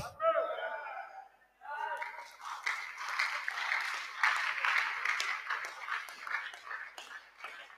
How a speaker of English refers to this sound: The way you are clapping, you are not in the house of God at all. Are you in the house of God at all?